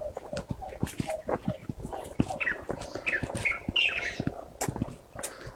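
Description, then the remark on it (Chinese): A light-vented bulbul calls with short, bright chirping phrases, rising and falling in a quick run, over a background of scattered clicks and rustling. “那个这个是白头杯，白头杯叫。”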